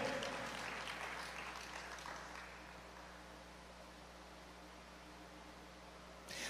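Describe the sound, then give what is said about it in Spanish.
An audience bursts into a dense wash of applause given to the Lord during a sermon, strongest in the first couple of seconds, then gradually thinning and tapering off, with no one speaking over it. “Dar un aplauso al Señor por esto.”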